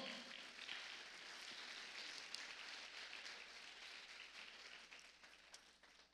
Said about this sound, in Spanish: La iglesia le regala palmas fuerte al Señor.